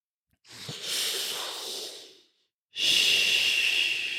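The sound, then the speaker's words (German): Someone imitates a woman's loud, heavy breathing: a long, airy breath of nearly two seconds, a brief pause, then a second harsh, hissing breath. No talking. “Na gut, in jedem Fall hat die dann so laut geatmet.”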